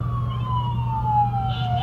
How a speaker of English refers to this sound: Sirens, ambulances, and a snowy February morning. A familiar scene for police and unfortunately for staff at Johnny G's.